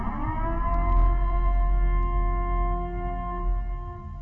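A loud, steady civil defense siren wails for the full duration, its layered tones holding level with only slight swells, over a low rumbling background and no talking.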